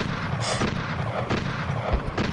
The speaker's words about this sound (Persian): دارم با دوشگاهاشو میزنن خودتو نباز